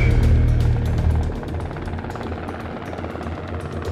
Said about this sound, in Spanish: Se vinieron los helicópteros, la, la, flota de inglesa se dispersó, los helicópteros se vinieron, sembraron de sonoboya, tiraban bombas de profundidad.